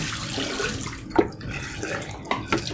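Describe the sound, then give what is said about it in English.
Distilled water with a little photo flow runs and pours steadily into a container for soaking film negatives, a continuous splashing wash with a couple of brief sharper splashes or clinks, no voices present. “I I soak them in distilled water with a little bit of photo flow.”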